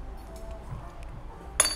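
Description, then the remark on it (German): Low café murmur and rumble at the Gundis in Vienna carry throughout, then a single bright, ringing clink of glass or cutlery rises sharply near the end before fading quickly. “Wir, sitz, wir, sitzen ja, wir sitzen ja im Gundis in Wien im Moment. Übrigens sehr zu empfehlen kulinarisch.”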